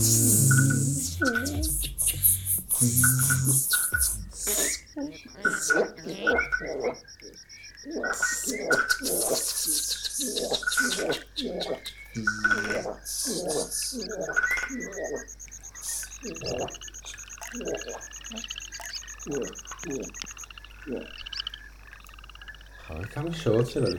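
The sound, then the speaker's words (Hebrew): A steady high-pitched cricket trill runs through much of the scene, layered with rapid rhythmic chirps, croaking calls and the buzzing of other insects, creating a dense, continuous nighttime chorus at moderate loudness. “הרוח הדולף, אה, שממשיך לדלוף, אמ, וקולות הצרצרים וקולות החרקים מלווים אתכם בזמזום בלתי פוסק.”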